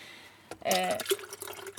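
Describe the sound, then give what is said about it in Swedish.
Water splashes and pours into a kettle in the morning inside a van at a campsite, starting abruptly with a gushing burst and continuing steadily for a little over a second, with a faint ringing tone as it fills. “Eh, jag kokar vatten på morgonen.”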